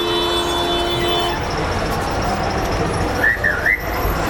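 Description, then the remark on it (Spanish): Busy outdoor street ambience in Mexico City, recorded on a recorder set to high sensitivity: a dense, constant roar of traffic noise, a sustained droning tone early on, and a few quick high whistle-like chirps near the end. No one speaks. “Ahorita van a escuchar muchísimo ruido. porque está en la sensibilidad alta.”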